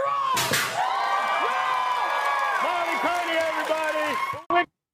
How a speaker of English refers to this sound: That's what everyone in that audience applauding. They don't even know what they're applauding.